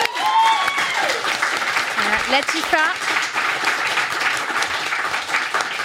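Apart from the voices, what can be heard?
applause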